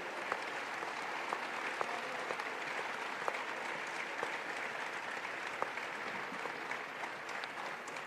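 Sustained audience applause in honour of Colonel Pedro Baños, a dense steady wash of many hands clapping at an even loudness for the whole stretch, with occasional sharper individual claps poking through and no voices.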